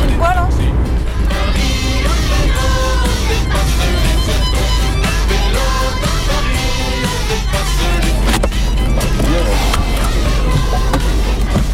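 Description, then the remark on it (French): Busy street traffic on the Champs-Élysées in Paris fills the scene, a loud, unbroken roar of passing vehicles with scattered clatter and rattling, while indistinct voices mingle in the background. “Je suis en plein milieu des Champs-Élysées là.”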